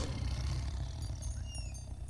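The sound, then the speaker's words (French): A lion's deep, rumbling roar fills the moment, low and powerful, sustained for a couple of seconds with no voices present. “Le lion rugit.”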